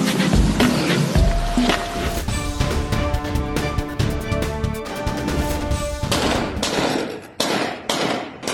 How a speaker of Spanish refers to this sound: Se amanecieron las calles de Reynosa, en medio de estruendosos disparos de criminales tratando de huir de la policía.